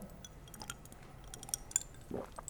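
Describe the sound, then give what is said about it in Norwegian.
Someone sips water: a few faint clinks of a glass, small wet mouth clicks, then a soft gulp near the end, all very quiet with no talking. “Jeg skal bare ta en liten sipp av vann, og så skal jeg fortsette.”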